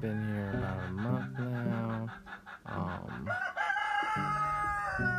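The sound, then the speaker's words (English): Chickens cluck and a rooster crows loudly and repeatedly, its harmonic calls dominating, while a man speaks briefly underneath, at a chicken coop built from pallets in Vieques, Puerto Rico. “The sounds you hear in the background are the chickens.”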